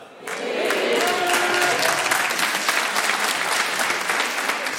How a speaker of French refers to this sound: Il y a vraiment que les meufs qui applaudissent. C'est marrant, hein